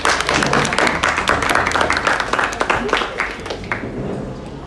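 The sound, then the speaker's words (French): An audience applauds, a dense, steady patter of many hands clapping that keeps up for several seconds and eases slightly toward the end, with a faint murmur of voices beneath. “Merci, on applaudit.”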